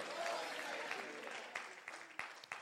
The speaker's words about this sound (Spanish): Alguien le da un aplauso fuerte a Jesús.